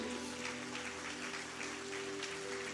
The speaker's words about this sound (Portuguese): Quem crê, dá uma salva de palmas a Ele.